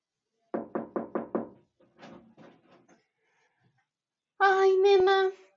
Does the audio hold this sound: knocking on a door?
yes